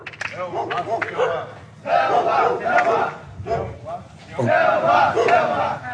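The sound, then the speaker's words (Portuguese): A group of inmates in military formation shouts the Brazilian army battle cry in unison, loud, in several forceful bursts separated by brief pauses. “Depois repetindo o grito de guerra do exército brasileiro.”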